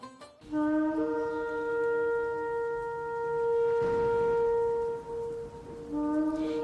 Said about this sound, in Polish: W Biblii dzień ten nazywany jest świętem trąb, gdyż dęto wtedy w szofar